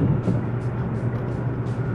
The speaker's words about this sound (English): Now I'm rolling through traffic to get there. Get there as soon as I can.